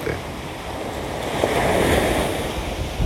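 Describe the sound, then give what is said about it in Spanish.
Ocean waves wash steadily onto a tropical beach in Puerto Rico, a broad continuous rush of surf with a swell building in the middle, mixed with some wind noise and no voices. “Y escuchan esta belleza de paraíso tropical que es Puerto Rico, you know.”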